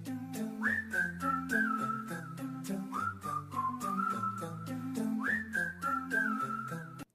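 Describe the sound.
A person whistles a bright, repeating melody with upward-sliding phrases, clear and up front over a steady backing track of bass notes and crisp percussion, with no talking.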